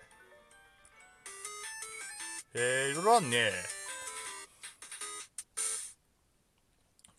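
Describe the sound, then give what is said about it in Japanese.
A short, bright electronic jingle, used as opening background music, plays in quick bursts of synth tones for a few seconds, with a person briefly speaking over the middle of it before it cuts off. “オープニング BGM 流していいですかどんな感じかなえこれしか選べないのあ、これ最初にやってから喋り出すのがいいのか。”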